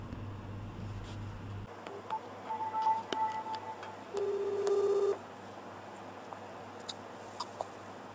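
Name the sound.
phone call ringing tone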